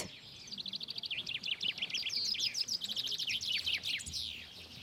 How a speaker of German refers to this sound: In einem Meter Abstand stehen etwa ein Dutzend Käfige auf der Waldschneise. Die Buchfinken singen gegeneinander an. Die Schläge, also die Strophen, werden gezählt. Wer am meisten schafft, gewinnt.